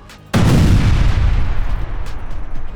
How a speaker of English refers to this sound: She's about halfway across the lawn when the force from the explosion blows her to the ground.